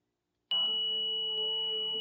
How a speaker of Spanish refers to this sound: Al finalizar la meditación, voy a tocar el gong y a dejar tres minutos de silencio, después de los cuales voy a volver a tocar el gong y terminar el audio.